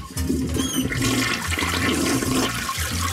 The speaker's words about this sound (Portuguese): Eu pergunto, vocês à meia-noite é vão à casa de banho? Mas é assim. Vocês puxam autocolismo? Eu puxo.